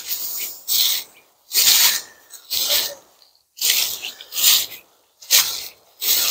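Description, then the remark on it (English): Footsteps crunching over frozen ground, about eight loud, gritty steps at a steady walking pace with brief quiet gaps between them. No one speaks. “Uh, you know, when it's free, you see the, you hear the crunching going on.”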